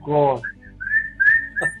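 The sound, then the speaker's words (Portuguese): A brief voiced sound, then a run of short, high whistled chirps and warbling trills, a person whistling in imitation of a chattering flock of sparrows, fairly loud and without speech. “É de passarinho. A Encheu passarinho. tocou de pardal, bando de pardal tô.”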